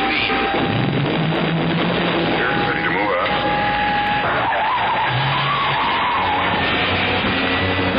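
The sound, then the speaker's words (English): Car tires screech loudly as a car speeds off, a sustained roar of engine and rubber with wavering, sliding squeal tones that rise and fall for about eight seconds. “To the Batmobile. Let's go.”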